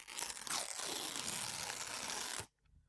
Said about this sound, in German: Genau, hier oben steht Open. Da muss man nämlich an dieser Papierbanderole, da kann man dran reißen. Achtung.